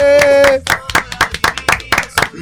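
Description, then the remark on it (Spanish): A quick series of sharp hand claps, roughly a dozen in steady rhythm, from what sounds like a small group in a radio program on Radio La Madriguera, with a brief sustained vocal tone at the very start. “Fuerte aplauso.”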